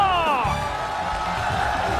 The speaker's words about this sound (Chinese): 借着各位热情的掌声，我们一起来欢迎一下我们节目当中重量级的嘉宾